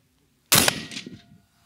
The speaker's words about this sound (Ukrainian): По готовності три постріли. Клади палець на спусковий гачок та роби дихання, плавний спуск. Усі три постріли у білу точку, яка там є.